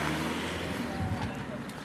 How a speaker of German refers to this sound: Am Kontrollpunkt der Luna Airbase in Kümpia Tursi stauen sich die Autos. Ein Lieferdienst reicht einem Soldaten gerade sein bestelltes Mittagessen aus dem Kofferraum. Dahinter reihen sich die Laster und Baufahrzeuge.